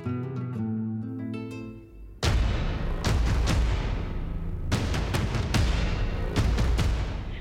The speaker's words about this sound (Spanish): Los disparos continuaron durante un buen rato más, hasta que los seguidores de Almazán se rindieron.